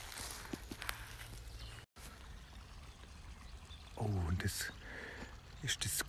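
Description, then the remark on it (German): Footsteps crunch over the forest floor, stepping on twigs that give a few sharp snaps, set against a steady wash of a clear forest stream in the background. A brief voice is heard midway. “Noch ein Stöckle, was zerdappt wird. Genau, wo man drauf tretet, gell?”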